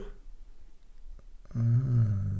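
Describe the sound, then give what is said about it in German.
After a quiet stretch, a person makes a loud, low, drawn-out groaning bellow, imitating a moose call, lasting about a second. “Äh, was machen Elche für Geräusche?”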